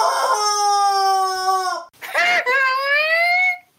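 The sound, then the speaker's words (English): A person's voice imitates a chicken, sounding like a congested rooster: a long, strained, nasal tone that breaks off, followed by a short rough burst and a second rising, wavering crow, fairly loud. “I'm trying to sound like a chicken. You sound like a like a congested rooster oh.”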